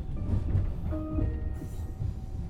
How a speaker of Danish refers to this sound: Vi sidder med den, næsten alle sammen, i det her S-tog.